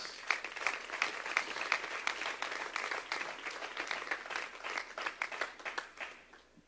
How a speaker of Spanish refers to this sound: ¿Merece Dios lo mejor? ¿Merece Dios el primado? Dele un aplauso entonces.